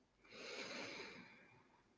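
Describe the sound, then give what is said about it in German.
A single long, deep breath of fresh air drawn in through the nose during a breathing exercise, a soft airy rush that swells quickly, holds steady, then gradually tapers off. Quiet, with no talking. “Frische Luft durch die Nase ein.”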